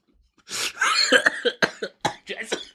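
A harsh coughing fit: a long first cough followed by a quick string of shorter, rasping coughs over about two seconds, with no talking.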